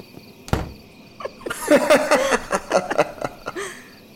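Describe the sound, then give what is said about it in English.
A frog croaks inside an apartment in a burst of rapid, raspy, rattling calls lasting a couple of seconds, preceded by a single dull thump, with no talking. “There's a frog in the apartment.”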